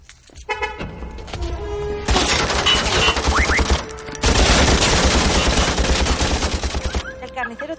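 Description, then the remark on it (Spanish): Car horns honk briefly as remote controls are pressed, then a butcher fires at the noisy cars: a long, loud burst of rapid machine-gun fire erupts, pausing once before continuing in a dense, continuous barrage with no talking. “dispara a todos los coches que hacen ruido al apretar a Anacleto los mandos”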